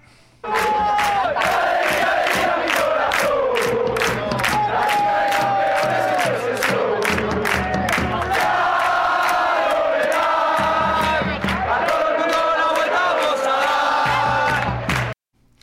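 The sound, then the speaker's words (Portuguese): A big crowd of Atlético de Madrid football fans chants a melodic song in unison, their adaptation used in pursuit of the Champions League, loud and unbroken for about fifteen seconds, punctuated by sharp, steady rhythmic hits. “Então vamos ouvir agora o trechinho do, do Atlético de Madrid.”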